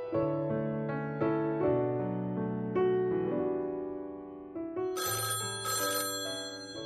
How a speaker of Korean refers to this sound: 전화벨 소리에 수화기를 드니 미희였다.